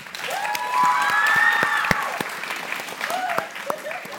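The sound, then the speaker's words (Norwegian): An audience breaks into warm, steady applause lasting a few seconds for the author Alexander Kielland Krag, dense clapping with a few whoops and whistles rising above it before it begins to thin out. “Gi han en varm applaus.”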